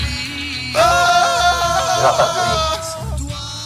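A burst of several voices yelling together erupts after a short quiet start, loud and sustained for a few seconds, overlapping pitches blending into one raucous group shout before tapering off.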